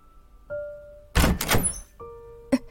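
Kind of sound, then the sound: household object, door being opened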